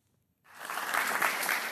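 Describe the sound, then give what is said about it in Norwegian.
Applause from an audience in the hall at Litteraturhuset as a politician steps up to the lectern starts abruptly after a short silence and quickly swells into steady, dense clapping that stays loud to the end. “Til applaus fra salen entra Siv Jensen talerstolen på Litteraturhuset i går.”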